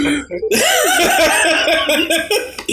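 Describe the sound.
A loud, drawn-out vocal fart noise, a voice imitating it with a wobbling, buzzy pitch for about two seconds, blending into laughter.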